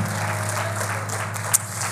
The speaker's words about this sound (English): In the name of Jesus, in the name of Jesus, give the Lord one more hand clap of praise this morning in His presence as you're seated today.